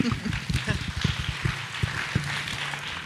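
An audience claps steadily for a few seconds, a dense patter of many hands at moderate volume that carries on evenly without cheering or voices.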